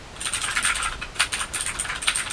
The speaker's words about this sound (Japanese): このね中国製のこの中国製が多いね中国製のさ変なキーボード